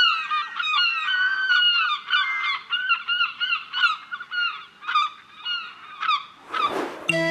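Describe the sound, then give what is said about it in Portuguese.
A crowd of seagulls squawking and crying nonstop, many harsh calls overlapping, then a short rough burst of noise right at the end. “E a resposta correta é o som das gaivotas, como era óbvio.”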